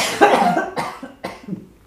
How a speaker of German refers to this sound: Du musst mal husten, dann musst du mal.